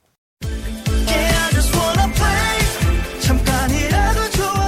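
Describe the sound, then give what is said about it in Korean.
A K-pop song kicks in abruptly after a brief silence, with punchy electronic beats, a thumping bassline and bright synth melodies playing loud and steady throughout. “노래 듣고 오도록 하겠습니다.”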